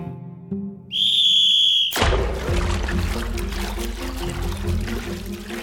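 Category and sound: signal or alarm, whistle being blown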